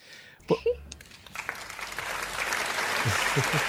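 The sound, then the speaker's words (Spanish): A couple of short vocal sounds, then a crowd's applause swells in and grows into a dense, steady wash of clapping that keeps building to the end. “aplausos, aplausos.”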